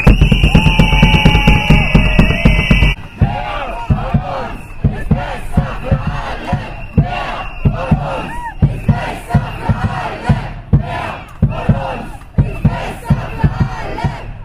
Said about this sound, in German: Diese Kolleginnen und Kollegen sind Teil unseres Streiks. Ohne sie ginge es nicht. Danke an euch alle, das ist euer Applaus.